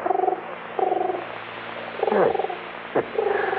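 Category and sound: bird, pigeon cooing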